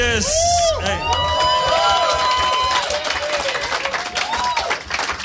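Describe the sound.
An audience bursts into applause and cheering, dense clapping mixed with whoops and high shouts that stay loud throughout, with some voices calling out over the crowd.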